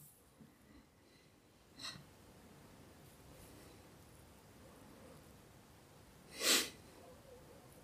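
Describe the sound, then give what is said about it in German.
A dinosaur in a film snorts heavy breaths against a window pane, first a faint puff and then one loud, hissing exhale, over quiet background hush with no talking. “Ich mag das hier auch, dass der jetzt so an die Scheibe ja. atmet, ne?”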